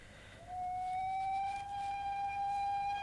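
A train whistle from the Nordbahnhof railway station sounds one long, steady, mid-pitched tone at half past three, starting about half a second in and held without a break to the end over a low background rumble.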